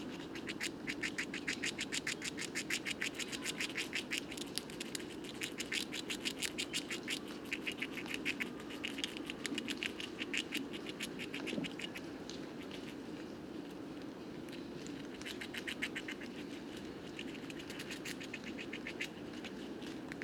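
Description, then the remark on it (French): Rapid, dry gnawing and crunching as two animals, each in a pine tree, one about ten metres away at a branch fork against a trunk, chew pine cones and seeds with their teeth, coming in dense bursts of fine scratchy clicks against a soft outdoor background, steady. “On les entend bien euh, grignoter avec le, bruit des dents les cônes et, et les graines.”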